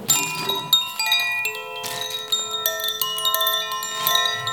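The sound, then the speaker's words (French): A small chime is struck several times to open a relaxation session, bright metallic tones ringing out and overlapping as each strike lingers and fades, with no talking. “Je commence toutes mes séances avec ce petit carillon.”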